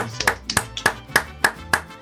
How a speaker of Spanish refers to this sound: Nos da mucho gusto recibir con un fuerte aplauso